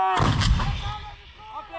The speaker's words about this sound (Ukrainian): Поки молдавські сили тренуються стріляти з радянських гаубиць, Д-20, американські військові спостерігають.